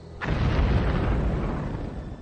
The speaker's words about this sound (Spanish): Acciones clandestinas que incluyen el bombardeo de molinos de azúcar, el incendio de granjas y la explosión de fábricas.